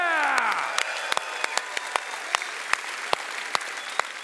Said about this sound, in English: Hey, guys, join me. We're going to turn this way, cheer and clap. Hey, everybody, thank you, thank you, thank you. We love you guys.